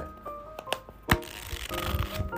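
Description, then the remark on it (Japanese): Papery rustling as pages of the book "Day Off" by Reijiro are flipped, a few quick swishes with one sharper, louder flick midway, over a faint steady background hum and no talking. “じゃあの本の音だけでも聞いてくだ”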